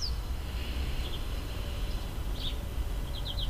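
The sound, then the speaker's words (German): Birds chirp softly outdoors on a terrace in scattered short bursts, a quick run of tweets near the end, over a steady low background rumble. Nobody speaks. “Für mich sind zum Beispiel gerade die Geräusche sehr präsent, da ich gerade auf der Terrasse sitze und die Vögel zwitschern und in der Ferne andere Geräusche zu hören sind.”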